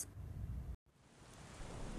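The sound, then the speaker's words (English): Steady, dense rain, falling since morning, hisses throughout, with a deep rumble of thunder underneath; the sound cuts out completely for a split second before resuming. “It was raining since morning.”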